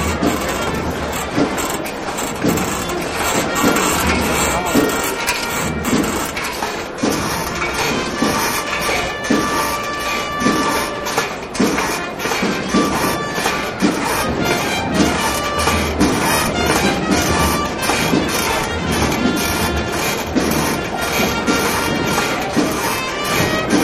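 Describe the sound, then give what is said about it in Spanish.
Continuous metallic rattling and clinking from the carrying poles (varales) of a paso de palio procession float, a dense, steady jingle of many rapid small knocks sustained at a fairly loud level, with no voices. “lo que escuchan de fondo es el sonido del varal, de los varales de este paso de palio.”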